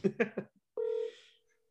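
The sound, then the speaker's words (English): A quick bit of speech, then a single steady ring tone from a phone call playing over a speakerphone, tinny and electronic, lasting about half a second before cutting off. “Do you guys hear the ringing?”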